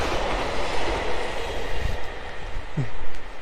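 A train rolls steadily along the rails with a dense, continuous, fairly loud rumble, and a brief wheel squeal rises near the end. No voices are heard.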